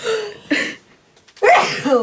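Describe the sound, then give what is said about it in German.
A single loud sneeze: a few quick breathy intakes build up, then a sharp voiced burst that trails off, with no talking around it. “Moment, ich muss niesen.”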